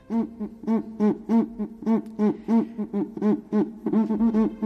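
A zambomba friction drum, its rod rubbed with both hands so the vibration passes to the skin, played in a brisk, steady rhythm: loud, low, hooting grunts pulsing about four times a second, each burst buzzy and rich in overtones, with no voices.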